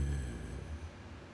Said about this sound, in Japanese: もちろん音はしますよ今換気扇の音も聞こえるし音はしてるんですけども